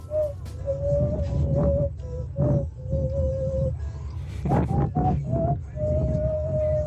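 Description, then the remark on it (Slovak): Someone imitates a fujara shepherd's flute with their mouth as an entry in a Europa 2 contest to find the best mouth fujara imitator. The steady hooting tones come in short phrases that step slightly up and down in pitch, over a low rumbling background. “A hľadáme toho najlepšieho fujaristu, ktorý to dokáže znázorniť, ale ústami.”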